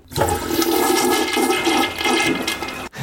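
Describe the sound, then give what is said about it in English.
A toilet flushes with a loud, continuous rush of swirling water, lasting about three seconds before cutting off abruptly, with no voices. “Toilet flushing.”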